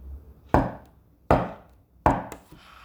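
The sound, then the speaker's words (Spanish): Three slow, heavy knocks on a wooden entrance door, evenly spaced, each a sharp loud thud with a short ringing decay, in an otherwise quiet space with no talking. “Al escuchar los tres toques fúnebres en la entrada.”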